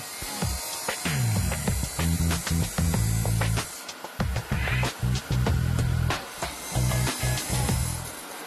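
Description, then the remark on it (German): A saw cuts the cap off a blue glass blank from an in-house glassworks so it can become a beer mug, a loud grinding whine with a humming drone that swells and breaks off in repeated surges, with a gritty hiss over it and no talking. “Von dem blauen Rohling aus der hauseigenen Glashütte sägt er erstmal die Kappe ab, damit ein Bierkrug draus wird.”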